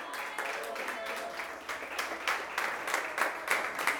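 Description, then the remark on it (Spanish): A church audience claps in praise of the King (God), a dense wash of many hands with rhythmic surges roughly every half second, moderately loud, with faint voices mixed in underneath. “Dale palmas al Rey.”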